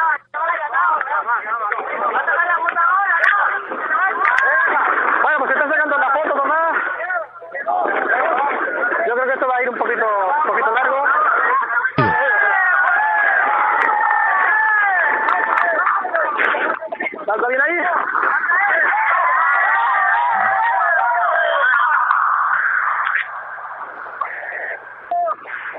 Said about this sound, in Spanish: Ahí se oye de fondo la alegría de todo el mundo que está en La Gomera celebrando esa victoria de el Unión Atlético Huima.